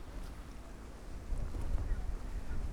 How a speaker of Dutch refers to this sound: gaan we helemaal de stormwind in van Schiermonnikoog. recht voor me uit de lineaal rechte Waddendijk. Met daarvoor fietsers die tegen de wind inboksen.